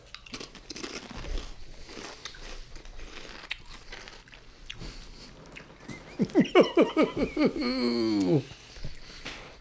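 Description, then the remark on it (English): Crisp, crackly chewing of a crunchy tortilla chip with sauce poured on it from a bottle, fairly quiet, followed by a quick series of rhythmic, hummed vocal grunts that slide downward in pitch while the chewing continues. “I just poured half this bottle on my daggone chip.”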